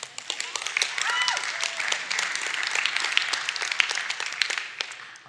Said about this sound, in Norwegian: Jeg skjønner jo at det er ganske vanlig at 1400 blir frelst. så Litt sånn forsiktig klapping det, det, Jeg skjønner det, altså.